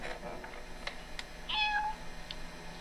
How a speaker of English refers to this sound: Where did we get a cat?